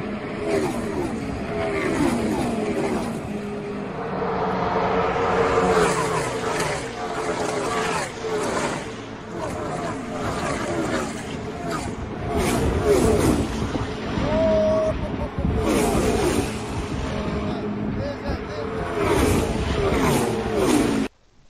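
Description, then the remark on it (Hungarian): A continuous roar of NASCAR race cars speeding past, heard from the fence, engine pitch rising and falling as they sweep by one after another, loud, with indistinct voices mixed into the din. “Hát amikor állunk a kerítésnél, az jönnek az autók.”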